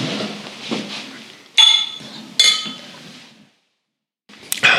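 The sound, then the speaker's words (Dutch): Glasses of sparkling water clink together in a toast, three bright ringing chimes spaced apart, each with a high shimmering tone that fades out, over a soft background hiss that drops to silence before the last clink. “Ja, ik drink nog altijd geen alcohol, hè, dus eh, het is met een, een glaasje waterbubbels te doen.”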